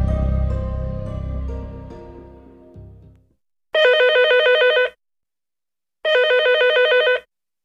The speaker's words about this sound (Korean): 잠깐 받지 말아봐요. 혹시 잠깐. 전화벨은 세 번 울리고 끊겼다.